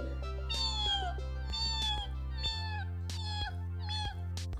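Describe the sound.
A voice mimics the high, thin whistle of caterpillars all whistling the same way at the same time, repeating it about five times in quick, wavering cries over a steady low hum, fairly loud.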